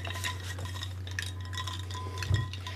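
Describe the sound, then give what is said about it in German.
A spoon stirs a mixed drink with juniper, mixed one to one, making a quick, steady run of light metallic clinks and scrapes against the glass over a constant low hum, with a slightly louder knock near the end. “Löffel bitte. Jetzt kommt auch wieder ähm, der Wacholder. Aber wenn ich eins zu eins mischen muss.”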